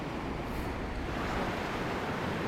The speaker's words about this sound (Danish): Og det, altså det er jo bare nogle helt vilde sådan strømforhold, som opstår. Man kan virkelig se de her høje bølger, når de rammer hinanden.